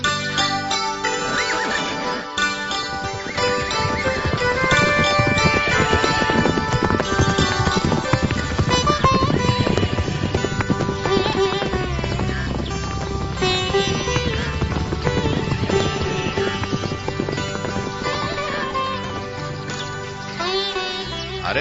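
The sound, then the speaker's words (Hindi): Horse hooves clip-clop in a steady trotting rhythm as a woman rides a horse to a river, mixed under a loud, continuous music score that plays throughout without pause. “बस भाई नदी आ गई यहाँ रुकते हैं तुम तो बड़ी अच्छी सवारी जानती हो”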